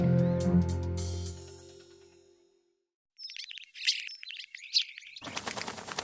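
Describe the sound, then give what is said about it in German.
A sustained musical tone fades into silence, then a bird chirps in quick bursts before a loud flurry of flapping wings as it takes off and flies away. “Na, wo ist er denn jetzt? Weg ist er. Der Vogel.”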